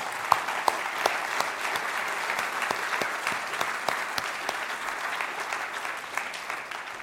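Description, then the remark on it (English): Steady applause from a church audience honoring mothers at a Mother's Day service at Whitestone, a dense wash of many hands clapping with a few sharper individual claps standing out, holding an even level for several seconds with no talking. “So let's give a big round of applause to all of our mothers.”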